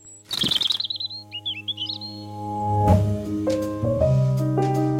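bird, robin chirping

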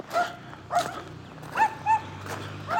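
animal, dogs barking

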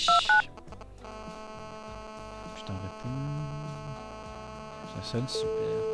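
signal or alarm, telephone dialing tones

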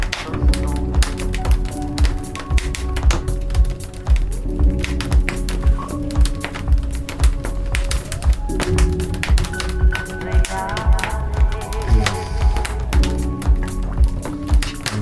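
nature, crackling bonfire

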